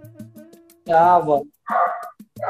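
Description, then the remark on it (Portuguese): A dog barks loudly, three sharp, strained barks in quick succession, with only faint background sound between them. “Puta, o cachorro aqui.”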